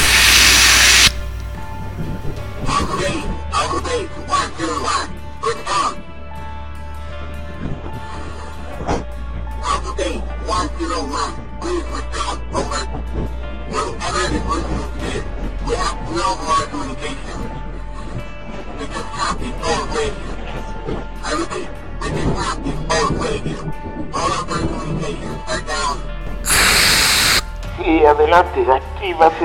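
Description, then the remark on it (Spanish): A loud hissing fumigation spray bursts briefly at the start and again near the end, with people talking in between. “Nos fumigaron”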